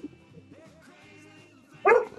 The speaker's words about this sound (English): Whoa! Dog's barking! It's a fucking dog.